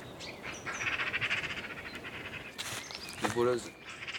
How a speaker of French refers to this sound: C'est un oiseau qu'on n'aime pas trop. Pourquoi on les aime pas je, je, sais pas.